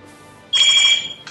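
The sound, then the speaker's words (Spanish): A phone ringtone bursts in with a loud, bright electronic trill lasting about half a second, followed by a fainter second chirp shortly after. “Sí, Llamadas inoportunas.”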